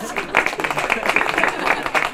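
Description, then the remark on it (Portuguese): An audience applauds a guitar performance of a Bach suite, many hands clapping in a dense, continuous patter that holds at a fairly even, loud level throughout. “pero es la suite de bar que merece todos los aplausos.”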